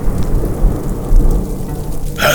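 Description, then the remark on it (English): Heavy rain pours steadily under a deep, rolling rumble of thunder, then a sharp, bright crack of thunder bursts in near the end. No voices. “and the lightning now reveals the witch standing directly behind him”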